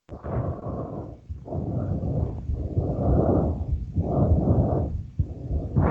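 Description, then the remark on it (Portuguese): Deep, heavy breathing, about five long loud breaths in steady succession, each a low, rough rush of air with short pauses between. No talking is heard. “Eu acho que você está respirando muito fundo.”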